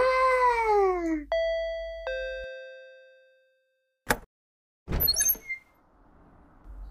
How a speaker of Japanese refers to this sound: 家のインターホンを鳴らしてから、